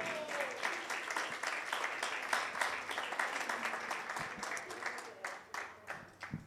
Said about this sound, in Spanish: Démosle un aplauso al Señor.